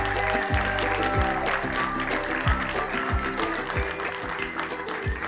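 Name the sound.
crowd cheering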